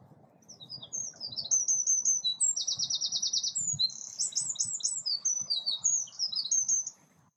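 Birdsong recorded from a balcony: lively, high-pitched chirps and a fast buzzy trill repeat for several seconds over a low, steady background rumble, with no one speaking.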